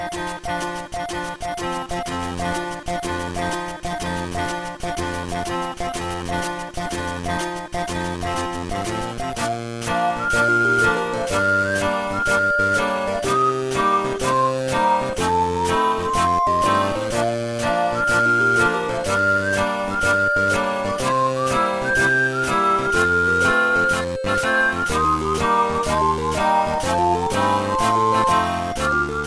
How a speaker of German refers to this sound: Friends of Mineral Town ja. hieß dieses Harvest Moon äh, für den Game Boy Advance. Komm, wir hören jetzt noch mal zusammen ein bisschen rein in den Soundtrack.